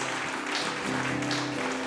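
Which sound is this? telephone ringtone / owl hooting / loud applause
loud applause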